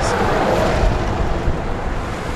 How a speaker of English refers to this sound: I have to cross two lanes of traffic on a busy road. The nearest crosswalks and traffic lights are a quarter of a mile away, so I jaywalk, dodging cars, trucks, and buses.